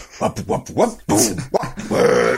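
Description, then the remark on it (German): A voice mimics a string of guttural male grunts and belch-like noises, several short bursts followed by a longer rasping one, loud, with no actual speech. “die ganze Zeit irgendwie ins Mikro gerülpst haben.”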